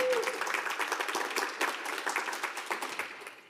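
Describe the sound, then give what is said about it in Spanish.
A church audience applauding for Jesus, a dense, steady wash of many hands clapping that fills the space and fades slightly toward the end, with faint voices mixed in. “Yo creo que le puedes dar un aplauso a Jesús.”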